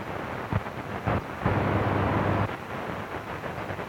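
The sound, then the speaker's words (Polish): Steady hissing radio static from an AM airband receiver tuned across the aviation band, broken by short rough bursts and a longer buzzing stretch of interference partway through, with no voices. “Są jakieś zakłócenia.”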